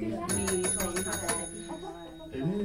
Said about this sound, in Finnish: Soitapa kelloa.